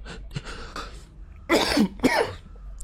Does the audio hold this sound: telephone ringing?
no